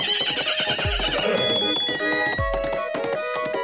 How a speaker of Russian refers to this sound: Ой, прискакал маленький ушастый конек. Симпатичный какой. Наверное, это конек-горбунок. Загоняет лошадок в конюшню.